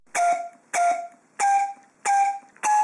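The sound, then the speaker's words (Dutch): Five short, reedy whistle blasts made on a hollow cow parsley stem, cut off with the bottom held shut and a slit halfway up the stem, evenly spaced, each a breathy, buzzing tone of steady pitch, with no talking. “En als je hem afsnijdt en de onderkant dicht houdt en halverwege een snee in de stengel zet, dan kun je erop fluiten. En dan klinkt het ongeveer zo.”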